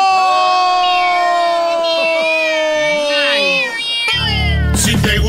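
A kitten sound effect: several kittens mew at once in high, overlapping cries, loud, until a sudden burst of crowd-like cheering and noise takes over for the final second.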